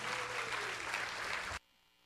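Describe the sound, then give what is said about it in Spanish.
A crowd claps for the Lord in a steady, dense, sustained wash of applause for about a second and a half, then it cuts off abruptly into near silence. “Si le vas a dar un aplauso al Señor, dale un aplauso que Él se lo merezca.”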